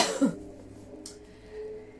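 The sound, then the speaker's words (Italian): A harsh cough from a woman bursts out at the start, followed by a brief, fainter rasp a moment later, then quiet with no talking. “Quando vengono stacchi di tosse mi passa la voglia, mi passa la voglia.”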